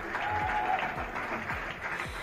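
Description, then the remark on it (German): Steady, dense clapping from many people in the streets and backyards in the evening at the start of the pandemic in Germany, a crowd applauding continuously, with a faint whistle and regular low thumps beneath. “So klang es damals eine Weile lang abends oft auf den Straßen und in den Hinterhöfen.”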